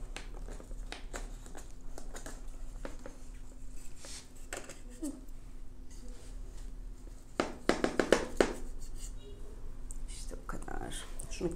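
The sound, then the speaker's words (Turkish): A knife is run around the edge of an adjustable metal cake ring holding a dessert: scattered short scratchy strokes and light taps, building to a denser, louder run of scraping near the end. “Yine de ne olur ne olmaz bir bıçak yardımıyla şöyle çevresinden geçiriyorum.”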